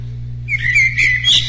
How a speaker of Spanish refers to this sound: aquí hay un pajarito que pongo porque es la parte que la gente se anda durmiendo. Entonces le pongo el pajarito para que se despierte.